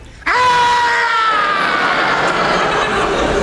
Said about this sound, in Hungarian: Szent mi volt ez a sikoly? Semmi. Az A épületben lakik egy fogorvos. Ő rendel otthon este fél nyolcig.